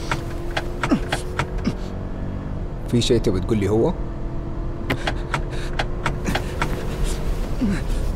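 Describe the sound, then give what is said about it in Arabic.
A steady low engine and road rumble fills a car cabin in motion, with brief clicks and a voice speaking a short question over the drone. “الحل الوحيد عشان تخرج هو إنك تنط من السيارة وهي تتحرك”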